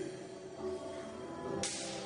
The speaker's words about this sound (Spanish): Eso viene. y una cachetada del Espíritu Santo.